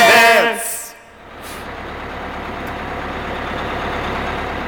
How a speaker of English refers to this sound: that's good because my bus is here.